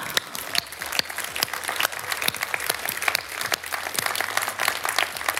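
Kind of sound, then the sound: crowd, audience applause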